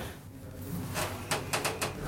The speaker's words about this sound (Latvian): Durvis aizveras, lifts dodas augšup.